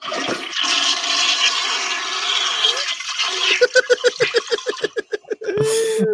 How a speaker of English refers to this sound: Ah. oh, it's a courtesy flush